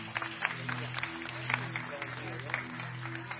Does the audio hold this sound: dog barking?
no